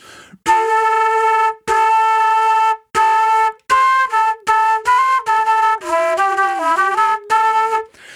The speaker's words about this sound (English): I'm kind of doing that while blowing across the flute. So it's not exactly a multiphonic, but it's kind of two different sounds.